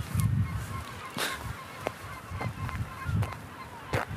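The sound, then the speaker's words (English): Geese honk repeatedly from overhead, a flock calling in irregular bursts over a steady outdoor wind rumble, with several sharp honks standing out above the background. “If only you can see how many are flying above me right now.”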